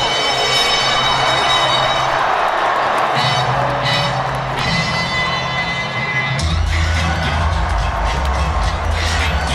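A large stadium crowd at an American football game roars and cheers continuously, loud and dense throughout, with sustained tones ringing through the din and a deeper swell in the final seconds.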